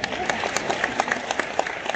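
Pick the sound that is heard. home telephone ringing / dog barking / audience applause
audience applause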